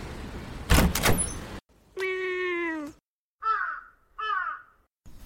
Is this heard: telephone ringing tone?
no